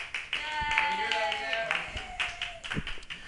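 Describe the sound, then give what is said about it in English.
A crowd applauds with dense, overlapping claps while several voices let out sustained whoops and cheers over it, loud, holding steady for a few seconds. “with applause or woos or whatever.”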